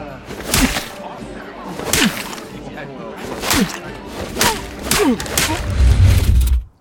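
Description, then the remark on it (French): A series of five or six sharp, loud slaps to the face of a man lying on a floor, given to wake him, land at uneven intervals, each a crisp smack, with vocal grunts between them and a low rumble rising at the end. “Vous pourriez le réveiller avec quelques gifles bien placées.”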